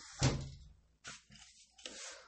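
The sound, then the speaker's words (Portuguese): A window of a home studio set up in a bedroom slides shut with a sharp thud, followed by a few shorter scraping and rattling sounds as the frame settles. “Vamos fechar a janelinha aqui”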